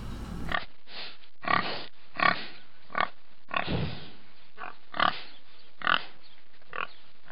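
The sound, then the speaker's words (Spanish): A pig grunts and oinks repeatedly in short, loud bursts at a steady pace, with brief quiet gaps between each snort and no one speaking. “El Día Nacional del Cerdo rinde homenaje a un hermoso e inteligente animalito que nos proporciona diversos tipos de alimento.”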